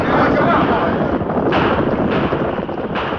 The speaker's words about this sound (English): horses are stampeding. They're coming out this way through the pass.